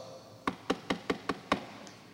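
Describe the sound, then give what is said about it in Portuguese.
Six firm, clear knocks on a door in a quick, steady rhythm, followed by a brief quiet pause with no voices. “E ele diz: se, você, se eu estou à porta e bato,”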